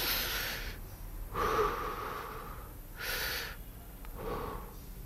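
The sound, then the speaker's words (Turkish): Slow, deep breaths drawn in and pushed out during a one-minute breathing exercise prompted by an Apple Watch app, several airy rushes in a steady rhythm with brief pauses between, no talking. “Bir dakika nefes alıyorsunuz.”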